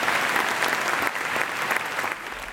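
A crowd applauds steadily, a dense wash of many hands clapping at once that holds for the whole stretch and eases slightly toward the end, with no voices standing out.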